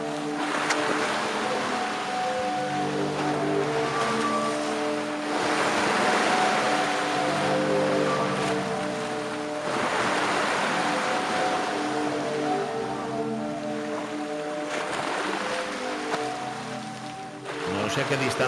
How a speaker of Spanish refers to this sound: se escucha con, total nitidez. y el mar también. Se escucha.